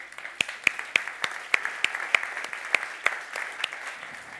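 Light, scattered applause from a small group for two volunteers: a dozen or so separate sharp claps in an uneven rhythm over a steady soft hiss, with no one speaking.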